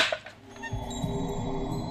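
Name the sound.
film clapperboard snapping shut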